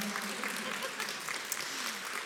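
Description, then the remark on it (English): An audience giving a couple a hand clap, steady applause of dense overlapping hand claps forming a continuous wash of sound with a few sharper individual claps standing out, and faint voices mixed underneath. “Y'all give them a hand clap today.”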